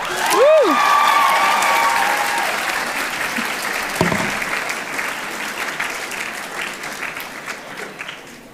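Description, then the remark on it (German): A crowd gives two losing quiz contestants loud, sustained applause as a consolation prize, dense clapping with a few whistles and cheers near the start, gradually thinning and fading toward the end. “Ihr bekommt als Trostpreis einen fetten Applaus.”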